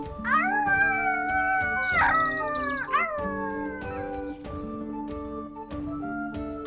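A long, wavering animal howl rises and slides in pitch, followed by a second shorter cry, fairly loud over steady sustained tones and soft knocking sounds.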